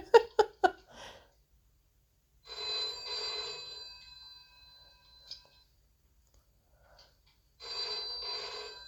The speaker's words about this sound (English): God, that is a violent phone. Isn't it? Sounds like my work phone. Are you serious? Jesus it is so Christ. fucking loud and annoying.